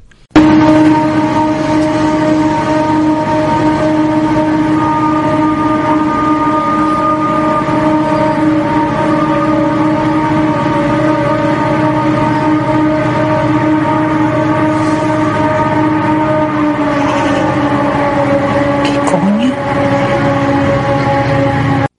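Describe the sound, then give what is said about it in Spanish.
A loud, eerie trumpet-like siren drone holds steady and unbroken for the whole stretch, a layered brassy tone that wavers briefly near the end. No one speaks. “Dijo que una amiga había escuchado y era un ruido bastante parecido a ese que parece como de trompeta, ¿no? Una especie de sirena, más incluso.”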